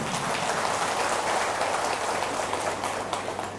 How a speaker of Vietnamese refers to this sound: hãy dâng cao một tràng vỗ tay để chứng minh điều đó